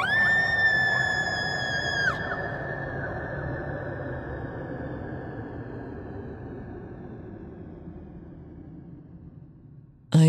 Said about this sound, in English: As the pit dragged me back down, I heard a scream over the rushing blood in my ears.